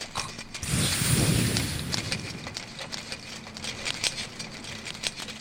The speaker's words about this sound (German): In dem Moment, wo du die Sphäre mit deinem Schlagstock leicht antippst, hörst du einen Mechanismus.